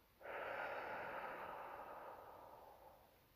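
A single long, airy deep breath in, filling the belly and chest, then breathed out, starting abruptly and slowly fading over about three seconds, with no talking.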